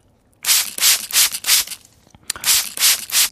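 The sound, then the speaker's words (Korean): A mist spray bottle spritzes in quick, even pumps: a run of about four or five bright, hissy bursts, a short pause, then another run of four. No voices. “네, 미스트 뿌리는 칙칙칙 소리입니다.”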